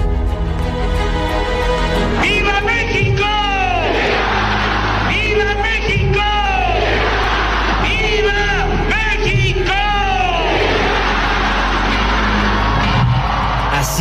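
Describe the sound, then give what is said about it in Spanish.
A huge crowd of more than 130,000 people in the Zócalo of Mexico City roars and shouts continuously at President Andrés Manuel López Obrador's Independence grito on 15 September 2019, with repeated rising whoops and bellowed cries swelling in bursts over a dense, steady wall of voices. “Un zócalo capitalino con más de 130 mil personas gritaban, cantaban, bailaban.”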